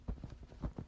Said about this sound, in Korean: 발소리가 들려오기 시작했다. 처벅 저벅 여러 사람의 발소리가 멀리서 들려왔다.